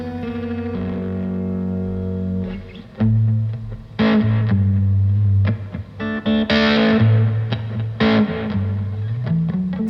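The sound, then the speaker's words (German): Electric guitar played by the speaker's sister, heard in an audio drama, with a distorted, effects-heavy tone playing sustained chords that change every few seconds, punctuated by sharper strummed hits, steady and fairly loud throughout with no voices. “also meine Schwester, spielt Gitarre und man hört ihre Musik in dem Hörspiel.”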